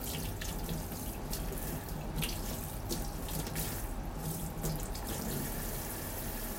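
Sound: tap water running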